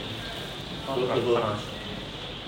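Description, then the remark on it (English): Rain patters steadily on a roof in a dense, even hiss that runs through the whole moment, while a person speaks a short phrase over it. “It's raining just on top of us.”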